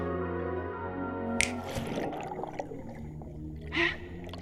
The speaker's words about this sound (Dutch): Snel, ik knip weer met mijn vingers.